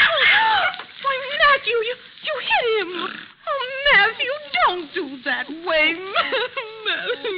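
Close, fairly loud crying made of high, wavering whimpers and whines that rise and fall in pitch, running almost continuously in uneven bursts over several seconds.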